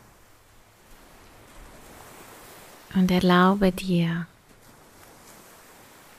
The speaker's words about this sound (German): Aber ich möchte, dass du dich jetzt auf diesem Strand befindest. Und du hörst den Wind Du hörst die Wellen rauschen.